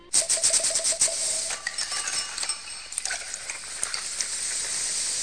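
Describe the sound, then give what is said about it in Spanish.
Glasses clink together in a toast to life, a quick flurry of bright, ringing taps at the start, then a few scattered chimes fade out over a steady background hiss. “Te invito a que brindemos por la vida.”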